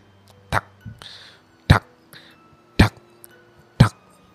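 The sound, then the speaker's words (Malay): A voice mimics knocking on a window at night with four sharp, evenly spaced taps about a second apart, fairly loud, with soft breathy sounds between them. “Aku terdengar sekali lagi Bunyi Ketukan tingkap tu Dia macam”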